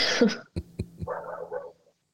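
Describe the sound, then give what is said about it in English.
A neighbor's dog barks: a rough burst, then three short sharp barks in quick succession, trailing into a longer whining, yowling cry. It is moderately loud, with no talking. “and that is the one, that is the one that my puppy, they're worse enemies. Like, they hate each other.”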